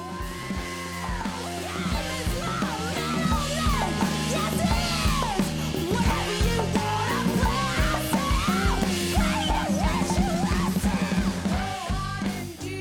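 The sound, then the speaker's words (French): A loud rock cover song, performed by a women's band and released on March 8 for International Women's Day, plays at a steady level, with shouted, energetic vocals riding over driving drums and distorted guitar throughout. “C'est une reprise pas mal le fun que je vais vous faire écouter.”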